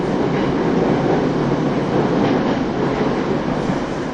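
A TWR 70-000 series train on a Saikyo Line rapid service between Shin-Kiba and Akabane runs steadily along the rails, a continuous loud rumbling roar with broad hiss and faint rhythmic rattling, unchanging for the whole stretch with no voices.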